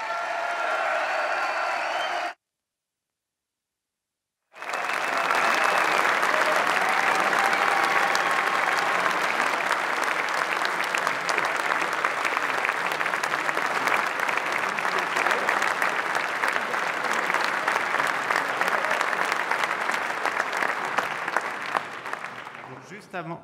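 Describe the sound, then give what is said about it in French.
At an evening event, a large audience breaks into loud, sustained applause for the man who put the organisers in contact with the guests. It lasts nearly twenty seconds and thins slightly at the end. A brief stretch of a voice and a short silence come before it. “Donc si vous pouviez lui donner un tonnerre d'applaudissements.”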